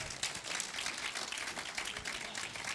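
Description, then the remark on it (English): A crowd applauds steadily, many hands clapping in a dense, continuous patter that stays fairly even in loudness throughout, with no voices standing out. “He's like I want them to see who they're clapping at that I am the favorite.”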